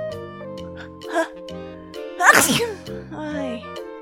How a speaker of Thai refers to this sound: แต่มันยังไม่หายคันจมูก มันเลยจามออกมาอีกหนึ่งครั้ง